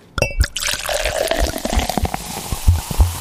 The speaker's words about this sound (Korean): 콜라 땄나요? 사이다 땄나요? 컵에 따르는, 네, 그 소리입니다.